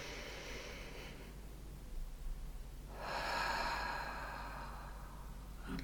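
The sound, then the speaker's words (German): Two slow, deep breaths: a long airy inhale through the nose, a brief pause, then a fuller, louder exhale that trails off gradually, with no talking. “Und dann einfach mal tief durchatmen.”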